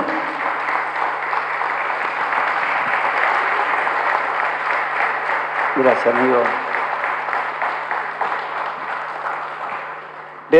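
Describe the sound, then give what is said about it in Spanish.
An audience applauds steadily for about ten seconds for three artists, at an event of the Partido Justicialista of Florencio Varela, a dense, even wash of clapping that holds at a fairly loud level. A man briefly speaks partway through as the clapping continues. “vamos el aplauso para los tres artistas para todos los que estuvieron trabajando atrás, porque fueron ayudados por diferentes dirigentes.”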